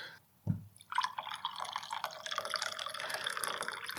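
A cup is set down with a soft knock, then cardamom coffee pours into it in a steady, splashing stream that fills the cup for about three seconds, with no one talking.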